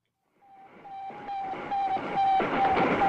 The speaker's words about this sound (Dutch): Met dit enerverende geluid meldde zich ook in Nederland de door de Russen in de ruimte geschoten kunstmaan.